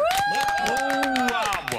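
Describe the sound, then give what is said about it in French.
Steady applause with dense, rapid clapping throughout, mixed with sustained tonal sounds like cheering or a musical sting, fairly loud and lasting nearly two seconds before tapering slightly, live on RTL radio for a caller who has just won a vinyl turntable in a prize draw. “vous êtes en direct sur RTL, vous venez de remporter la platine vinyle, on vous applaudit”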